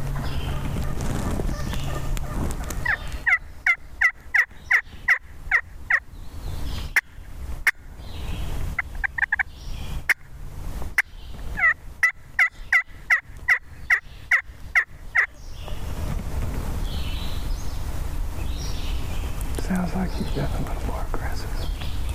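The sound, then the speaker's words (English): A wild turkey gobbler gobbles in rapid, rattling bursts, two long aggressive runs of sharp repeated notes, loud over a steady outdoor background. “And he's right, that gobbler is getting more aggressive.”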